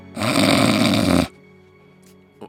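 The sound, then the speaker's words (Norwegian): A single loud, rasping snore from a man asleep, recorded around 2015, lasting about a second, dense and rattling, followed by quiet breathing and a faint short sound near the end. “Det var sånn du pustet eh, 2015-ish.”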